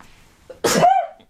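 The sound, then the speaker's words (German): A single sharp, loud cough bursts out, a harsh noisy blast trailing into a short voiced rasp, with quiet breathing just before it and near silence after. “Alter, Gesundheit.”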